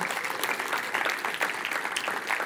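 A crowd claps steadily to thank the organizers who prepared the gathering, dense overlapping hand claps forming a continuous, even wash of applause at a moderate level throughout, with no voices standing out.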